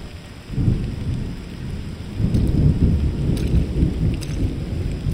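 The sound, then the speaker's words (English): Steady rain falls throughout, with deep rolling rumbles of thunder swelling up twice beneath it. No voices, just the continuous wash of a storm. “I walked home in the rain very slowly.”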